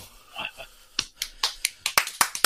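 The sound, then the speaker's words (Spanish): A brief murmur, then a clapping sound effect: a run of about ten sharp, crisp hand claps in a quick, slightly uneven rhythm, growing a little denser toward the end. “Tengo por aquí hasta, hasta los, los aplausos, vea.”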